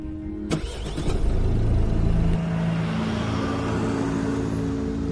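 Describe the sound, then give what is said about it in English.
A car engine catches with a sharp click and rumble, revs up for a couple of seconds, then settles into a steady, humming drive with low, continuous road noise as the car is driven to a house. “As I drove to the scene, I couldn't help but think about the horrors that occurred in that house.”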